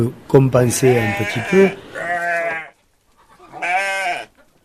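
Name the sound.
sheep bleating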